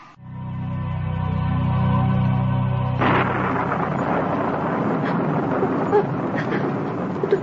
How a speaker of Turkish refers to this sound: Üşüyorum. Nasıl da yağmur ya.